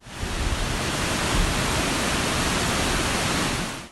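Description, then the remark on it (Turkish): A steady, dense roar of rushing floodwater, loud and continuous, as İkizdere Creek in Rize, Turkey, overflows after a heavy morning downpour, with no voices. “Rize'de sabah başlayan şiddetli sağanak sonrası İkizdere Deresi'nin taşmasıyla kenti Erzurum'a bağlayan karayolu ulaşıma kapandı.”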